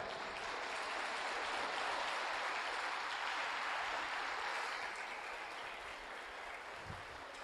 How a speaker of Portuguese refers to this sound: Dê um aplauso ao Senhor, vai.